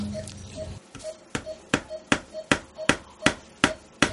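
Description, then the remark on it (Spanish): A hammer taps steadily on a hard surface, about nine sharp, evenly spaced strikes with a slight ringing tone, fairly loud, after a brief low rumble at the start. “Pásame el martillo.”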